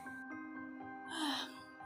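A child yawns once, a breathy, drawn-out sound that swells and then slides downward in pitch, heard close up over a faint steady hum.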